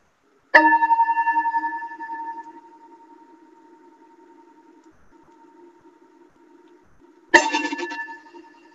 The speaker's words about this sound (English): As we prepare to begin worship today, I ask that you settle yourself comfortably, take a deep breath, and let yourself listen to the sound of the bell.